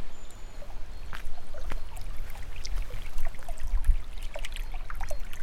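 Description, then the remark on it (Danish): Groundwater from a spring, at a constant temperature of about 7 degrees, trickles and burbles steadily, with scattered small splashes and drips as a hand dips into the flow to feel it, over a low rumble of moving water. “Det vand, der kommer ud her, det har en konstant temperatur, for det er jo grundvand, der kommer op af jorden.”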